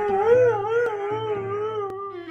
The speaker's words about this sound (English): Apparently, based on my history of likes, I like when a woman asks one of her huskies if it wants to go to the park. You do want to go to the park. And then it starts howling. And then her other husky joins in.